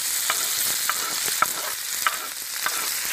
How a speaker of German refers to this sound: Der nächste Schritt ist Zwiebel anbraten. In die Pfanne kommt ein großer Esslöffel Margarine. Den Herd schalte ich auf volle Temperatur an und lasse das Fett in der Pfanne heiß werden. Dann die Zwiebel dazugeben.